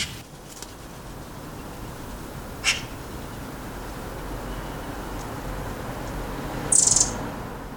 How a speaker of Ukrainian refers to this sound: деяких птахів я ідентифікую саме за звуками. От тільки фють, фють, фють це гори-хвістки літають. В середині травня, на початку червня, вони починають активно літати і знаходять собі пару.